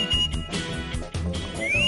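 Someone whistles a long steady note, then a quick upward-sliding whistle near the end, heard over a busy, thumping background.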